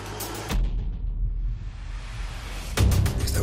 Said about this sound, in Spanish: el coche yendo para la sierra.